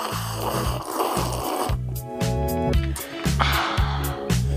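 Loud, close-up crunching of crispbread, with brittle crackly bursts repeating in a steady chewing rhythm and no talking.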